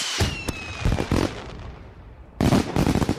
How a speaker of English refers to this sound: It feels great to get more than you expect, like getting two chocolate bars from the vending machine, getting an enormous birthday present, Yay! or launching those celebratory fireworks.